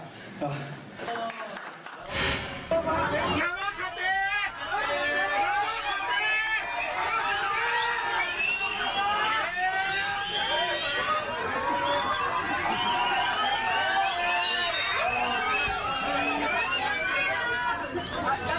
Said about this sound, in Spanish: Bueno, estamos escuchando una clásica pelea entre usuarios del sistema más grande de transporte de esta Ciudad de México, que se llama el metro, eh, em, método de transporte de millones de personas todos los días.